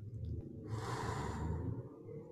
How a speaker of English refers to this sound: Deep breaths in and deep breaths out.